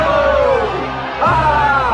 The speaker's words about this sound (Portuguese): em pleno clima de euforia, o público recebe o time Toguro. A torcida inteira vibra com a entrada do time.